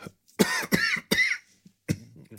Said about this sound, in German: Ja, ja bevor, bevor ich an meinem eigenen Lachen und Husten ersticke sollten wir